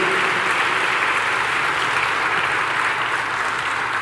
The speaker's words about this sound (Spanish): Alguien puede darle otro aplauso al Señor. Su presencia está aquí.